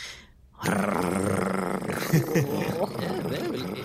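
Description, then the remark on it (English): After a brief pause, a person launches into a loud, sustained growling imitation of a large furry creature lasting a few seconds, rough and throaty with wavering pitch. “If it starts growling, that's a good thing.”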